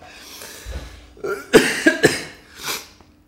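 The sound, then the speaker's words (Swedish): A short, harsh coughing fit after choking on water: a few sharp, sputtering coughs in quick succession, then one more a moment later, with ragged breathing between them and no talking. “Upp genom näsan.”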